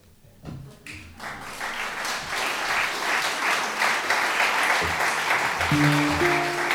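An audience claps in a dense, steady roar of many hands, building quickly after a quiet start and staying loud throughout; a few low tones sound near the end.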